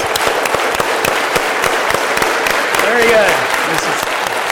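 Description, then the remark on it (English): An audience claps together in sync in a steady, fairly loud rhythm, the individual claps blending into a dense wash with faint voices audible underneath. “So let's see if we can clap and kind of clap together.”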